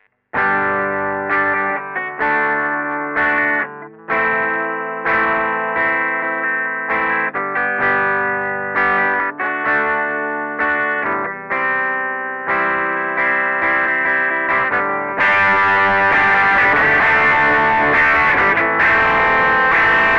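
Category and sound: sound effect, electric guitar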